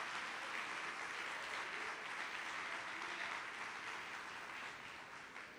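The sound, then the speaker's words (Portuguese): An audience applauds the Lord together for Christ's victory on the cross, in a steady, dense wash of clapping that holds for several seconds and then begins to taper slightly at the end, with no one speaking over it. “Você gostaria de aplaudir ao Senhor por esta vitória que Cristo consumou na cruz do Calvário por você, por nós?”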